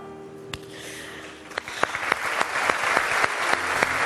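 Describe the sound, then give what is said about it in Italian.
An audience at a festival breaks into applause, the clapping starting sparse with a few sharp claps and swelling into a dense, steady wash of many hands by the end. “Applauso.”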